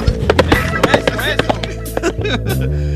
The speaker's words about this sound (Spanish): Qué potranca, mira cómo llega, mira. escuchen, escuchen esos tacos altos como suena.